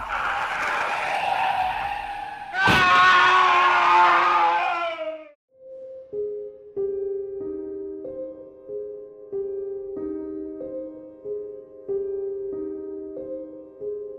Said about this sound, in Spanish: Siguió aquella curiosa sombra, pero él no esperaba que justo cuando fuera a cruzar la calle un auto saliera de la nada y lo arrollara.